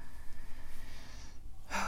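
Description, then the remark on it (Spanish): A quick, sharp intake of breath for air, fairly loud, as the speaker stops talking to breathe, coming after a near-silent pause with only soft room noise. “Y de hecho, no sé si os habéis dado cuenta, pero durante los 11 minutos que llevamos de podcast, he tenido que parar a respirar tres veces.”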